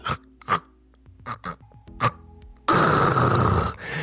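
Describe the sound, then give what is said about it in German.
A voice imitates loud snoring with breathing pauses: a few short, rough snorts, a quiet gap like a breathing pause, then a long, loud rasping gasp before it cuts off. “Denn Schnarchen mit Atemaussetzern, und das ist häufig, wenn wir häufig laut schnarchen, dann haben wir oft so Atemaussetzer, da verschluckt unsere Zunge”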